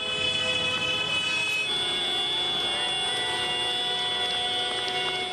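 A convoy of farmers' tractors honks steadily as it arrives at Omonia Square in central Athens, many loud horns overlapping in a sustained, droning blare over a low engine rumble, with no voices.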